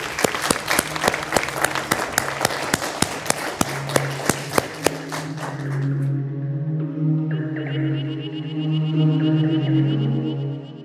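An audience at the Powerhouse Museum applauds to thank a guest at the end of a morning conversation, a burst of dense, steady clapping for several seconds, then the clapping fades as sustained tonal music swells and carries on alone.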